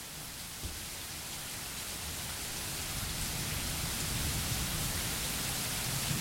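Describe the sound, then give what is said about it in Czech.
Steady, dense rain hisses continuously during a storm with a low rumble underneath, growing slightly louder over several seconds, with no voices present. “Kvůli bouřce byl signál přerušen, vyčkejte prosím.”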